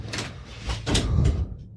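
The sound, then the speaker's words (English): A door is pulled open for a pizza delivery with a rumbling, scraping slide lasting about a second and a half, moderately loud, with no voices. “Someone's at the door.”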